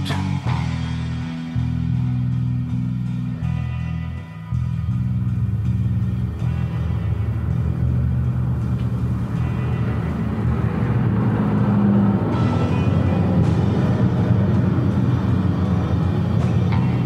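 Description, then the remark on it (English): Military helicopters rumble overhead in a steady, heavy drone that swells slightly louder as they pass, with no voices over the deep, continuous engine noise. “Well, thanks for coming by to check on us military helicopters.”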